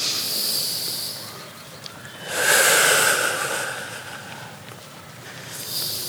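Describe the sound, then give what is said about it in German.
Slow, deep breaths while walking through the Prater park in Vienna: a soft hissing inhale through the nose, then a longer, louder airy exhale through the mouth, followed by the start of another inhale. No one speaks. “Atmen wir mal so richtig tief ein über die Nase und jetzt atmen wir mal lange über den Mund aus.”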